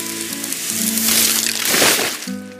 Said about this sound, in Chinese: 小狐狸被厚厚的雪埋住了。原来是冷杉树的树枝被雪压断了。